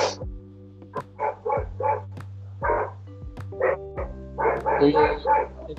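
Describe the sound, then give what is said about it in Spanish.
Dogs bark in the distance, a scattered run of about a dozen short, muffled yaps that pick up near the end, over a steady low hum. “los, perros, weón.”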